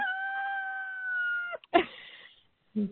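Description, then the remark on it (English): A rooster named Ron crows right beside the person recording: a long, loud, sustained call holding a steady pitch before breaking off into a rough, ragged finish. Afterward there is a brief pause and a short low sound. “Ron the rooster has come right up beside me and is cockadoodle doing as he does.”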